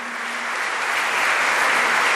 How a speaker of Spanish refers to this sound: Un aplauso al Señor.